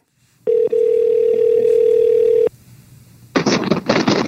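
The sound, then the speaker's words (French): A steady, single-pitched telephone dial tone hums for about two seconds with a tiny break near its start as a call is placed to Jean-Charles Lajoie, followed by a quiet pause and then bursts of loud, crackly rustling noise. “Je vais l'appeler.”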